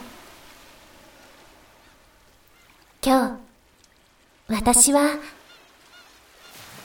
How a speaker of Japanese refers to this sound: 懐かしいな海に沈んだ街。耳を澄ませば聞こえてくる海猫の鳴き声。